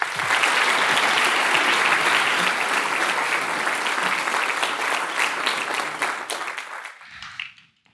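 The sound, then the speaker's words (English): Sustained audience applause welcoming guests to the stage, a dense wash of many hands clapping loudly for several seconds before tapering off and fading out near the end. “Um, and now please join me in welcoming our guests to the stage.”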